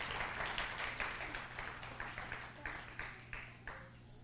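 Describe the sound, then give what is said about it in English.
A church audience applauds the children steadily for several seconds, a dense patter of many hands that gradually thins out into a few scattered claps. “Give our kids a hand, and y'all can go back to your seats.”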